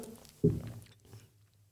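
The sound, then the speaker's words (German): A single gulp as someone swallows a sip of water, a short thick mouth-and-throat sound followed by faint wet murmurs, with no talking. “aber warte ganz kurz, jetzt trinke ich einen Schluck Wasser.”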